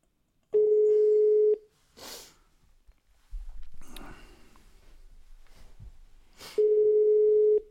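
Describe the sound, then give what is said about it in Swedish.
A phone beeps with an incoming call: two long, steady mid-pitched electronic tones, each about a second, separated by a gap filled with sniffing and faint background shuffling and rumble. “Det är piper som fan min. Det är någon som vill mig något.”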